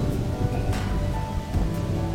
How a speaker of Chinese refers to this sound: 雷暴来了，或正在撤离，是刺人的空气把我们弄醒。